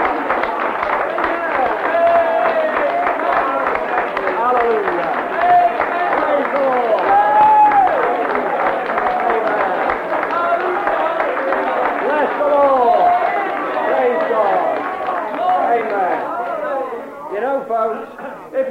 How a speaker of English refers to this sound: Now let's give Jesus a real hearty clap, Praise the Lord. Amen.